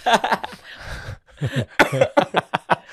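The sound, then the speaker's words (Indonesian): Fairly loud laughter breaks into a fit of harsh coughs, several quick bursts in an uneven run with a brief pause midway. “Sampai batuk-batuk nih”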